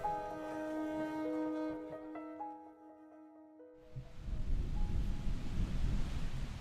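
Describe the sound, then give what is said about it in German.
Sustained musical tones fade away, then strong wind roars in outdoors on a warm, overcast morning, a loud, rumbling gusting that buffets the microphone for the last few seconds. “Guten Morgen, der Wind ist zurück, der Himmel bedeckt, aber es ist warm.”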